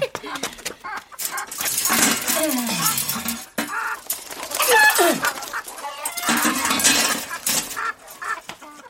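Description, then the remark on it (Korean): Several chickens in the lower compartment of a coop cluck and squawk in agitated bursts as its door is opened and they rush toward the outside, fairly loud, with flapping and rustling between calls, almost continuous over the whole stretch with a brief pause partway through. “아래칸 닭장문을 열었다. 문을 열 때 닭들은 재빨리 바깥으로 붙었다”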